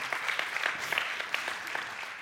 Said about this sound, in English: You can clap for him. Yeah, that's good.